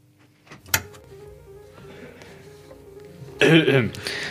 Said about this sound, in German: Da hustet doch jemand. Da hustet schon wieder jemand.